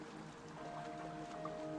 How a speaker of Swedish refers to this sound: Morfar började genast att ro. Skulle de hinna rädda gubben måntro? Båten for fram över vattnet med en väldig fart.